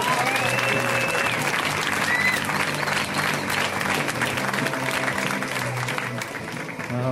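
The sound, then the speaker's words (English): A comedy show audience applauds steadily and loudly for several seconds as comedian Raj Desai takes the stage. Dense clapping is topped by a few whoops and cheers, tapering slightly at the end. “Give it up for Raj!”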